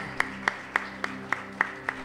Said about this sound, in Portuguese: Uma salva de palmas